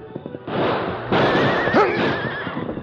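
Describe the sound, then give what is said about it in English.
A horse whinnies loudly, its shrill, wavering neigh rising over a rough, noisy background with some clattering movement, as horses are guided along a deeply shadowed canyon at Cub Pass on the way to the Ajax mine. “As they guided their horses along the deeply shadowed canyon”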